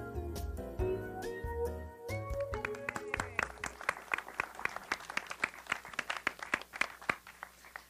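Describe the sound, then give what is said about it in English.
An audience breaks into applause, scattered claps growing into dense, steady clapping that carries to the end, following a few seconds of bright, stepping musical tones at the start. “So while well, we're, um, uh, applauding, uh, I know you have uh, some of your story department here.”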